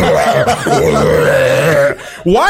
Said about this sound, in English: It's immediate burping. Soon as you drink that energy drink, I don't know if you know that you immediately burp. Because it's carbonation.